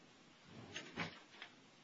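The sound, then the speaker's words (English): A top desk drawer holding FCC general guidelines slides open with a few quick scraping rattles and a soft thump, moderately quiet, with no talking over it. “Got it in my little drawer right over here, my top drawer.”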